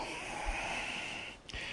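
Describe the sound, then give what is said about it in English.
A cat snorts with a breathy, raspy rush of air that holds steady, then breaks off briefly near the end before starting again. No one speaks. “That's my cat.”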